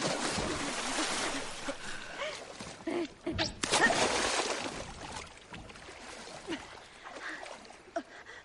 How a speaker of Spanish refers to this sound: Saltan al agua.